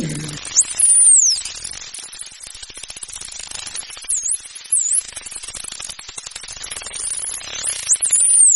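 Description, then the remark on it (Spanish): A dolphin's high, sweeping signature whistles, likely a mother's call, repeat several times, rising and falling in pitch, over a steady crackling hiss of underwater noise, with no voices. “eventualmente el bebé desarrolla su propio silbido firma”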